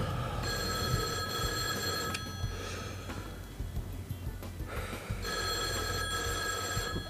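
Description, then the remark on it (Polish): A telephone bell in a film rings in two long, bright bursts separated by a pause of a few seconds, loud, over a steady low rumbling background. “No, odbierz ten telefon.”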